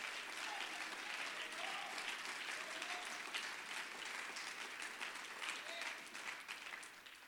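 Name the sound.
audience clapping hands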